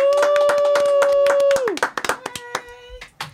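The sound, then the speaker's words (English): A small live studio audience claps rapidly and steadily while a loud, sustained whooping cheer holds one pitch and then slides downward; afterward the applause thins into scattered, fading claps. “we have a live studio audience.”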